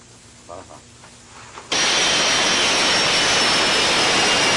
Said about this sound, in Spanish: Proceda a despegar los aviones Sukhoi 30 MK2, aviones F-16 y aviones K-8 a fin de dar cumplimiento a las tareas específicas en el marco de este ejercicio de acción conjunta.